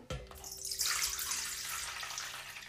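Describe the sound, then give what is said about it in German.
580 grams of lukewarm water stream steadily into a large bowl standing on a scale, for a yeast dough, a continuous splashing pour with a bright hiss that starts abruptly and runs without pause; nobody speaks. “Und genau, jetzt kommen, kommt das lauwarme Wasser da rein.”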